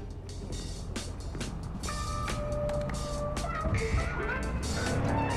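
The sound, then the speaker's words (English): Steady low rumble of a car interior while driving in a video game, with constant road and engine drone, faint whining tones and light clicks and rattles, gradually growing slightly louder. “one of the the sample i brought is actually a conversation happening in a car”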